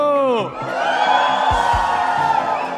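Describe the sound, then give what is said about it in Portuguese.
A live crowd roars with loud shouting, whooping and cheering after the host asks them to make noise, opening with a rising collective yell that settles into sustained, dense noise from many voices. “Então, é muito legal que estão acontecendo cinco insights ao mesmo tempo e parece que os cinco estão aqui porque a galera gritou forte pra caramba.”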